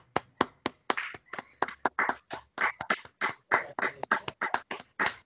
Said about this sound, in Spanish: Siete y media ponemos que es la hora del aplauso nuestro a los suscriptores. Vamos.